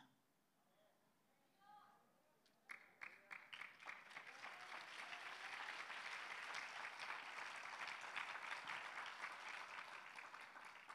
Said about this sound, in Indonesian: Yang tepuk tangannya agak seret mungkin nggak menyimaknya, tapi nggak mungkinlah diulangi lagi ya.